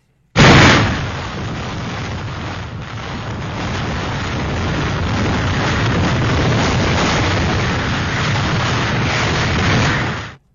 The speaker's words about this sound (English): That is the sound of a 200 mile an hour wind. Yep.